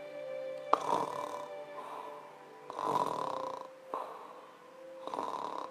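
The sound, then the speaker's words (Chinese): A person imitates even, steady benign (ordinary) snoring: about four regular, evenly spaced rasping snores with a buzzy, droning tone and short pauses between them, with no talking. “我可以为大家模仿一下，这是均匀，这是这个是良性的打呼噜，您听好了哈”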